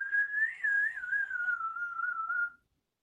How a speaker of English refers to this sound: I could even whistle with crackers in my mouth